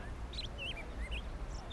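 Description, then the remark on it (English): Several birds at a nest chirp and call in short, high, warbling bursts over a steady low rumble, the calls fairly quiet and scattered across the moment with no voices. “It's just you and me. And the birds.”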